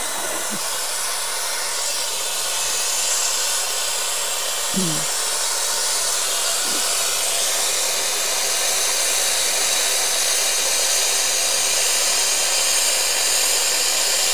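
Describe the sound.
A loud, steady rush of hot water pours into a pan, with a few faint knocks as potatoes go in, and a brief murmur from a voice.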